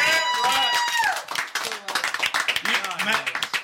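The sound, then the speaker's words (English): A round of applause breaks out after a second of loud, sustained voices, with fast dense clapping and scattered cheers carrying through to the end, fairly loud. “Y'all give him I'm a here. fucking round of applause.”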